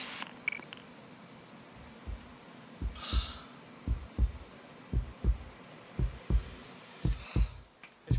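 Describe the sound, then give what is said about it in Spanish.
A steady heartbeat thumps in muffled double beats roughly once a second, with faint breathy hiss now and then over a quiet background. “Es el latir de un corazón destrozado, uno que va camino a encontrarse con la soledad.”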